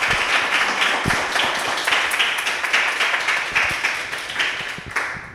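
A crowd claps steadily for several seconds for a speaker, many hands overlapping into a dense, even applause with sharp individual claps standing out.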